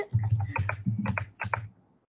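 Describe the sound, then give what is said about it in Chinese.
Quick typing on a computer keyboard: a handful of crisp key clicks arriving in short pairs and clusters over about two seconds, with a low steady hum underneath and no voices, as someone looks up the grade levels for the guzheng. “我不知道他们是一二三四五六七八九十还是十九八九十三一，但是我我要查一下，我要查一下。”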